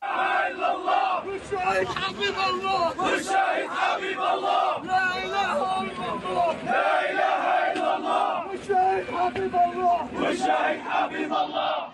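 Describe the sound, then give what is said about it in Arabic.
At the funeral of journalist Shireen Abu Akleh, a large crowd chants and shouts slogans denouncing her killing in unison, a dense wall of many voices rising and falling in rhythmic bursts, loud and continuous throughout with brief dips between phrases. “شيع جثمان شيرين اليوم وسط هتافات وشعارات بتندد باغتيالها وبقتلها بدم بارد”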